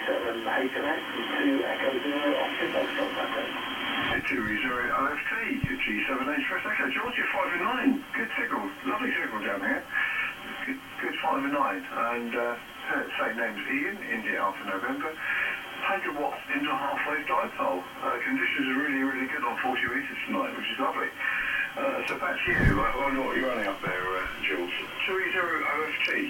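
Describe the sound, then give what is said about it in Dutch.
Amateur radio reception on the 40-meter band: thin, band-limited voices crackle through a steady hiss of shortwave static for the whole stretch, sounding distant and slightly garbled. “Nou, ik zou zeggen, laat maar eens wat horen. We zitten nu op 7160, 40 meter.”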